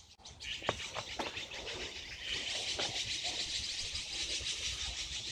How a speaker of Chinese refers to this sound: 十月一号凌晨六点，颐和园的。今天北京依然有雾，但是霾好像少了一些。喜鹊从我头顶上飞过，还有乌鸦。